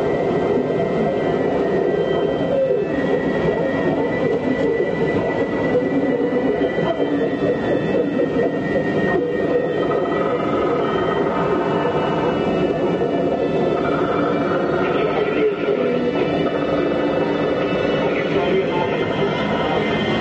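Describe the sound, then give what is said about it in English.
A dense underwater hydrophone recording of fish vocalizing: a steady, loud rumbling wash full of crackles and low grunting murmurs that continues without pause, with no voices. “The fish world has always been considered a silent habitat, but with our sonar hydrophones, we've discovered that fish actually talk.”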